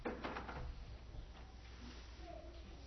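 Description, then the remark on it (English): A door bangs loudly as it is kicked open, a quick cluster of heavy thuds right at the start, followed by a low rumbling background tone and faint voices. “You almost kicked my door down.”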